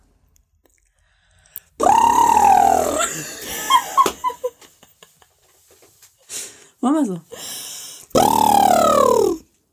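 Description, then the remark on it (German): Two loud, buzzy horse-like lip trills, done as a warm-up before a recording to loosen the mouth, each lasting over a second and sliding down in pitch, with short bits of speech and a quick vocal glide in between. “Okay, also wir, wir machen wie ein Pferd.”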